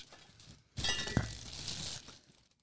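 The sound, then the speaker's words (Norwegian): Large glass beer bottles clink and rattle together in a bag being held, for about a second, with a bright ringing chime and some crinkling rustle, moderately loud, with no voices. “Det knitrer, det klirrer.”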